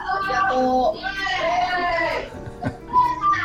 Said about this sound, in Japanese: にぎやか。賑やか。うん。子供たちの言葉が本当に綺麗に録音できてるかどうかは分かんないですけどまあ自由だなっていうのは絶対伝わったと思います